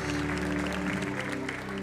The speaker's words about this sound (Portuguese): Sejam bem-vindos. Salva de palmas, amados. Sejam bem-vindos, sejam bem-vindos.